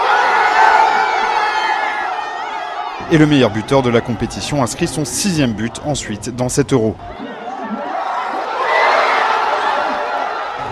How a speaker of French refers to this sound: Les dizaines de milliers de personnes réunies dans la fan zone de Marseille deviennent complètement folles.